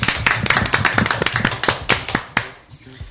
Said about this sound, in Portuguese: Pessoal, podemos fazer uma salva de palmas para esse cara da Avon aí?